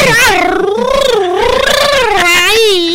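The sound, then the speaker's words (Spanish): A voice imitates the cartoonish wailing cry of Kiko, a loud, continuous, warbling howl that rises and falls in pitch for about three seconds. “Es, el, llanto, de Kiko.”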